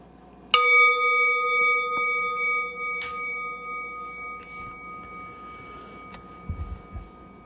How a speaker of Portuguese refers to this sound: E daqui a pouquinho eu vou convidar o sino a soar e a gente vai interromper o período formal de prática, mas não precisa se mexer correndo.